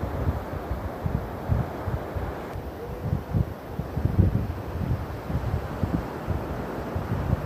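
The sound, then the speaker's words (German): A steady, soft rush of ocean surf washing on a sandy shore, mixed with low rumbling wind buffeting the microphone; continuous and fairly quiet, with no voices. “Bleibe noch etwas auf der Picknickdecke sitzen, spüre den Wind, den warmen Sand beruhigende Meeresrauschen.”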